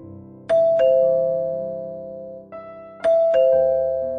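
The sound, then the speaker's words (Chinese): Liu Bing presses the doorbell of Ding Yuanying's apartment in the Jiahe Yuan residential compound. It rings twice, each a two-note ding-dong chime whose bright tones hang and slowly fade. The second ring comes about two and a half seconds after the first, with no voices. “刘冰找到丁元英的房号，按响了门铃。”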